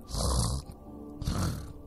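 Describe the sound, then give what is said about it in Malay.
A sleeping man gives two loud, rough snores, each a long rasping inhale with a breathy hiss, separated by a short pause, with no talking. “Berdengkur.”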